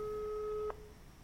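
A telephone ringing tone heard while placing a call to get a broken washing machine repaired: one steady, mid-pitched electronic tone holds for under a second, then cuts off abruptly, leaving faint background hiss. No one speaks.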